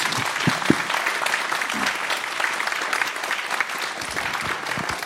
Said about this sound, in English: And I have to, I want you to give a big applause to our panel of expertise.